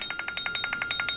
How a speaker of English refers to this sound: That's my phone ringing.